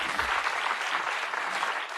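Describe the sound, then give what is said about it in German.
An audience claps steadily for the team, a dense, continuous patter of many hands at a fairly even loudness throughout, with no voices standing out above it. “Hey, gebt dir nochmal einen Applaus.”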